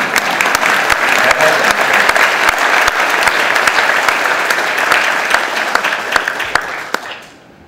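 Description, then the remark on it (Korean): An audience breaks into sustained applause, dense overlapping clapping that holds steady and loud for about seven seconds before quickly tapering off at the end. “한 분 박수 치신 박수를 주세요.”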